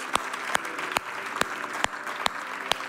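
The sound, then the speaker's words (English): A church audience applauds in praise to God for people who made a decision for Jesus, clapping together in a steady rhythm with sharp, evenly spaced claps roughly twice a second over a soft background of crowd noise; no one speaks. “Come on, can we give God a praise for those that have made that decision for Jesus?”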